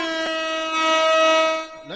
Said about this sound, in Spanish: Déjale, toco la corneta y el efecto de corneta.